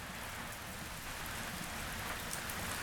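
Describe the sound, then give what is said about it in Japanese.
Heavy rain pours down steadily, a dense, continuous hiss of drops drumming on surfaces, with rainwater overflowing from the gutters; no voices and no pauses in the downpour. “雨が止む気配はない排水能力を超えてしまった雨水が雨どいから溢れ出ているそれにしてもひどいですね”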